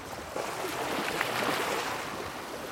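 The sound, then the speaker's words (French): Steady rushing of sea water fills the scene, a broad continuous wash with slight surges, like churning waves. No voices, just the constant roar of moving water. “on est, on est à la mer, dans la mer.”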